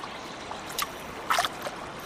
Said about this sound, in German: So, und jetzt bin ich am Bach.